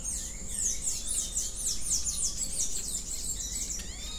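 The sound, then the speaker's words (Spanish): A dense chorus of birdsong from birds in the trees around the main house, especially at the Salón de las Hamacas, many birds singing and chirping over one another in quick, high-pitched trills and whistles, steady throughout with no voices. “es una combinación desordenada pero a la vez perfecta del canto de las aves que habitan o visitan los árboles circundantes de la casa principal, sobre todo en el Salón de las Hamacas, mi lugar favorito para escuchar y grabar toda esta vida alada.”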